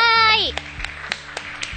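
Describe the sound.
A short burst of voice gives way to about five crisp, evenly spaced hand claps, a small, steady round of applause heard close up over a faint background.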